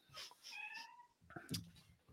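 A cat meows in a drawn-out, wavering cry, followed by a second shorter, sharper meow with a brief rustle, moderately quiet with no talking.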